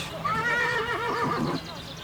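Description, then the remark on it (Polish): An Arabian horse gives one loud whinny lasting just over a second, its quavering pitch shaking up and down before it breaks off, leaving faint background noise. “Stadninę koni arabskich w Białce prowadzi od roku 2012 spółka o nazwie Małopolska Hodowla Roślin.”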